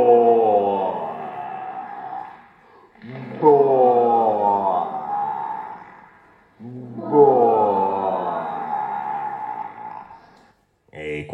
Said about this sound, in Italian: Qualcun altro però ha notato che lo stomaco non faceva soltanto buo, buo, bui, ma ehm, c'era tutto un, una, un arcobaleno di suoni. Per esempio, un altro suono che abbiamo individuato era questo.